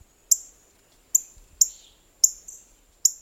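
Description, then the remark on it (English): A female northern cardinal plucking a black oil sunflower seed from a feeder gives about six sharp, high metallic chip notes at irregular intervals, clear against an otherwise quiet background. “A female northern cardinal plucks a black oil sunflower seed from a feeder.”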